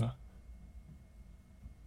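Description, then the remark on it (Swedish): A victory beer being opened on a Wednesday in a hotel in Karlstad: one short, sharp crack and burst of fizz right at the start, followed by near silence with only a faint low background murmur. “Var det en segeröl?”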